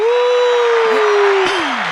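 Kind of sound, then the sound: sound effect, applause sound effect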